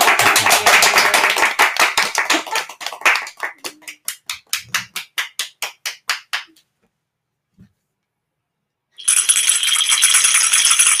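Hands clap in a quick, dense burst that gradually slows into separate sharp claps and trails off, followed by a pause and then a short stretch of loud hissing noise.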